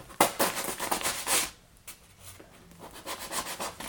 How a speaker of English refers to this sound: I love the sound of the knife as it runs on the stone being picked up. Really good knife draw sound.